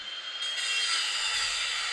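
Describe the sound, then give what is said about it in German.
An angle grinder runs with a harsh, steady high-pitched whine and hiss, loud, rising in intensity briefly after starting and holding constant throughout with no voices. “Oh, die hört sich aber nicht schön an, die Flex.”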